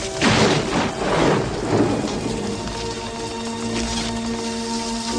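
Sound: thunderstorm with heavy rain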